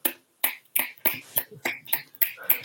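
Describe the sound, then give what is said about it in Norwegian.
A lone man applauds himself, about eight sharp, steady claps in quick even rhythm, with no talking. “Jeg gir meg sjøl terningkast seks, så gir jeg meg applaus.”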